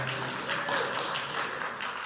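A brief burst of hand clapping from an audience at Evergreen, a dense patter of many claps at a steady, moderate level for about two seconds, with no talking.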